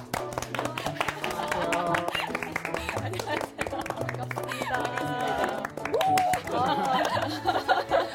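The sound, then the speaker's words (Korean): A studio audience claps and applauds steadily for several seconds, with music and a murmur of voices running underneath, as actor and author Bong Tae-gyu is introduced as a guest on a Korean TV book programme. “박수 좋아하시는군요.”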